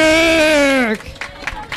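A loud, sustained tone slides downward and cuts off, then a brief patter of applause for a singer follows, with irregular claps that stay fairly steady until the end.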